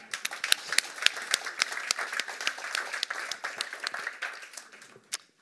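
An audience applauds steadily for several seconds to welcome a woman introduced as a longtime journalist, a dense patter of many hands clapping with sharper individual claps standing out, tapering off toward the end with one last clap.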